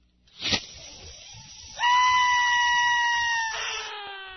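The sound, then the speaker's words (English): A customer getting their tongue pierced by a piercing machine gives a brief sharp cry, then a loud, sustained scream lasting a couple of seconds, its pitch dropping lower near the end. Strained, with no talking. “Let's listen now as one of our customers are coming in and getting their tongue pierced.”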